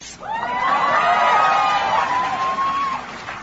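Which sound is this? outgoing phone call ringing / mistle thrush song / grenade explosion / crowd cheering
crowd cheering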